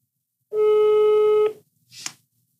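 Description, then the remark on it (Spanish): A single steady telephone call tone, heard while dialing a call to see if someone answers, rings out for about a second, a flat sustained electronic pitch with harmonics, followed by a brief click-like burst and then silence. “Estamos haciendo la segunda intervención llamada para ver si nos contestan.”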